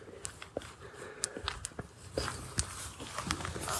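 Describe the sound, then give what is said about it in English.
Footsteps crunch steadily through a quiet outdoor garden at night as someone walks back past a polytunnel, a series of irregular steps on soft ground with faint rustling in between and no voices. “I'm walking back past the polytunnel now.”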